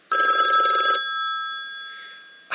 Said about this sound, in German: Du kannst nichts dafür, überhaupt nichts. Das Telefon klingelt einfach, das ist Gott. Und wenn du rangehst, dann passiert ein Wunder.